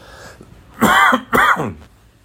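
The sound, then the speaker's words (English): Two loud bursts of coughing and throat clearing, one right after the other, harsh and raspy, with a brief pause between them and no talking. “Excuse me while I cough.”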